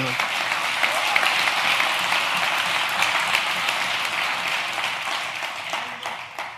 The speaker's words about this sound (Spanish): Dale un aplauso bien fuerte